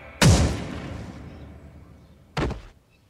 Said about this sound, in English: But he presses the gun hard against her belly and fires.